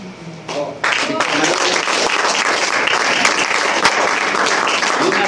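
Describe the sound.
A crowd bursts into sustained applause after a brief moment of voices, the dense clapping staying loud and steady until the end.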